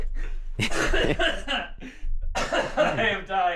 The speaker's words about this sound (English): you okay, …? I already needed to cough.